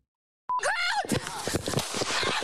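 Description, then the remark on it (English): A sudden sharp gunshot, fired by a police officer and recorded on a body camera, breaks the silence, immediately followed by a woman's high, wavering scream and loud, distorted commotion with further sharp cracks as she is shot again. “There's a shot. She screams, shoots her again.”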